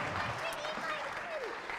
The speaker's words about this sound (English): Shall we give our actors a round of applause? Thank you. Thank you.